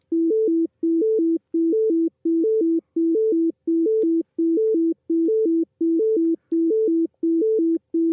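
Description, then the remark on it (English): A steady loop of three short electronic tones in an A-B-A sequence, low-high-low, repeating about a dozen times in a fast, galloping rhythm with tiny gaps between groups, clean and loud with no talking. “Yep, just three three little notes ABA.”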